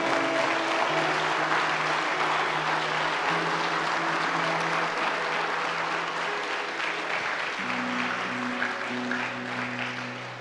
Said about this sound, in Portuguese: Aplauda Jesus para você dar uma acordada aí.